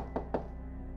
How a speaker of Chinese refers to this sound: 门外的敲门声再次响起，那个声音又问道：“ 里面有人吗？给我开门呐！”